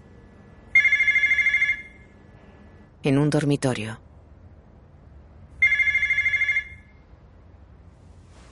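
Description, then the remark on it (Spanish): A telephone rings twice in long, steady bursts of a bright, buzzing bell tone, with a short stretch of speech in between the two rings; Bryuhanov picks up the phone. “Bryuhanov coge el teléfono.”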